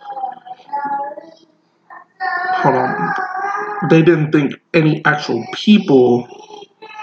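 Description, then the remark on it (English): A young boy whimpers and wails in drawn-out, high-pitched cries in the background, while an adult keeps talking over and between the sounds. “So, and you can hear my son there in the background.”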